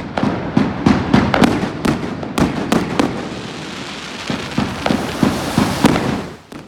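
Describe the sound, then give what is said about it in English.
Fireworks and firecrackers go off in the city streets of a Danish city, heard while biking through it: rapid, overlapping bangs and crackles in a dense, irregular barrage, with sharp pops over a constant rumbling haze of explosions; no one speaks. “And there I was, biking at full speed over the bridges and over the main roads, dodging children playing with fire, like a crazy post apocalyptic free for all war zone.”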